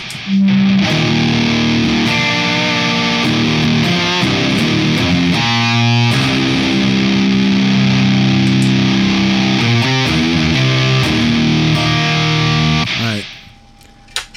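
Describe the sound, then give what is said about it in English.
A heavily distorted electric guitar, played through stacked distortion pedals with volume and mids gain set between two and three o'clock, plays a sustained riff of saturated chords and single notes, loud and thick with fuzz, running continuously before cutting off near the end. “Uh, excuse me, added a little more volume and a little more mids gain. Uh, put them both to about between two and three o'clock.”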